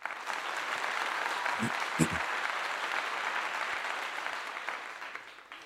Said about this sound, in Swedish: Det är veckans applåd, eller två veckors applåden, för saker och ting som vi tycker att någon har gjort, eller en grupp människor har gjort, något som utmärker sig väldigt eller speciellt.